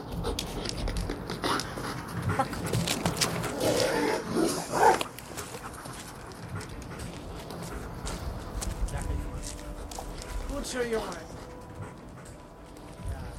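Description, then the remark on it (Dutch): A dual-purpose commando corps (KST) dog, trained to track and to bite, pants heavily and rhythmically throughout, with a man speaking briefly over the steady breathing. “Nou, ik heb eigenlijk een, eh, een dual-purpose hond.”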